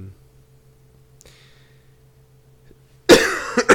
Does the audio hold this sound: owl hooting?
no